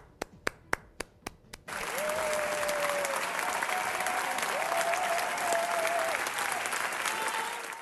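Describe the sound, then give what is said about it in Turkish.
Six or so isolated claps ring out, then a large audience erupts into a thunderous, minutes-long standing ovation for pianist Fazıl Say at the Palau de la Música concert hall in Barcelona, Spain, dense sustained applause filling the reverberant hall, with a few whistles cutting through above it. “Dünya turnesine devam eden ünlü piyanist Fazıl Say, İspanya'da fırtınalar estirdi. Dakikalarca ayakta alkışlandı.”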